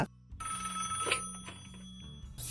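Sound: telephone ringing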